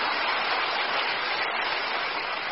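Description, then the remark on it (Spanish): An audience applauds again at the speaker's request in a steady, dense wash of clapping that holds at an even level for about two and a half seconds, with no voices over it. “para los que les pido un aplauso otra vez, porque los amo de verdad.”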